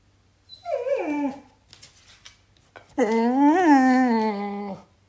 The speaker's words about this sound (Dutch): En dit is Frankie, onze uitlaathond.